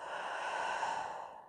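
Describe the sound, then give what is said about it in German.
A long, deep, breathy exhale after a deep breath in during a guided relaxation exercise, flowing out steadily for about a second and a half before trailing off, with no talking over it. “Atmest einmal tief ein atmet aus.”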